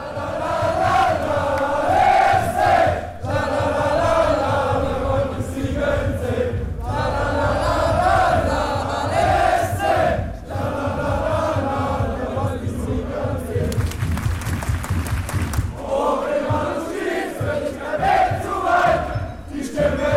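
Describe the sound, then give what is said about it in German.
Several thousand Freiburg football fans sing together in a loud, rhythmic chant on a one-and-a-half-kilometre fan march from the city centre to the stadium before the match, voices swelling in repeated melodic phrases with a steady beat, continuous throughout with a brief rougher shouting stretch. “Bereits dort stimmten sich die mehreren tausend Freiburgerinnen und Freiburger gesanglich aufs Spiel ein”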